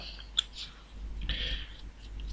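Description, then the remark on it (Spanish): A single sharp key click followed by soft, hissy tapping and rustling of light typing on a computer keyboard to upload a file, fairly quiet with no voices. “Estoy haciendo el gestito de la computadora. El, tecleo.”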